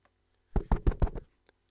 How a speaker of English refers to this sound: Okay. Um, can I knock on the box? Sure, if you like.